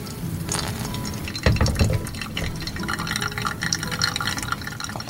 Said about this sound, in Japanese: ハンドドリップしてる時のこの音と香りっていうのは本当にいいですね。そうですね癒されますね。